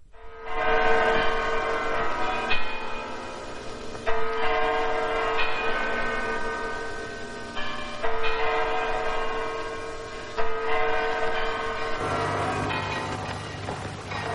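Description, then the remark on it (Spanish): Church bells in Toledo, Spain, ring out loudly in a slow, overlapping peal, each strike blooming into a long resonant hum that rings on beneath the next, with no voices. “una película que además solo por el fondo ya y las campanadas que vamos a escuchar nos trae precisamente a la ciudad imperial.”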